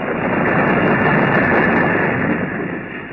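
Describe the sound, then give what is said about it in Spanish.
Thunder from an electrical storm rolls as a loud, continuous, dense roar for about three seconds, easing slightly at the end, with no voices. “Una tormenta eléctrica, bien.”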